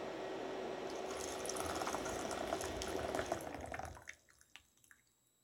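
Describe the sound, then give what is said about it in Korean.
Hot water is poured to brew tea in a steady, continuous stream for about four seconds, then stops, leaving a few scattered drips trailing off. Fairly loud, with no talking. “일단 차를 좀 내리도록 하겠습니다.”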